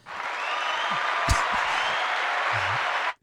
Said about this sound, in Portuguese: Acho que é merecedor de uma, de uma salva de palmas eh, de todos nós.